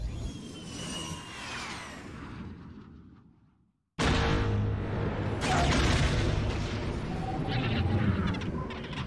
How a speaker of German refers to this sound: Erst siehst du den Knall und dann hörst du diese, diese Explosionswelle. Seismic Charges. Stand by.